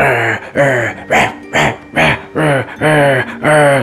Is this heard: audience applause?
no